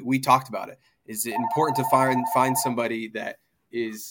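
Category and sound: signal or alarm, phone ringing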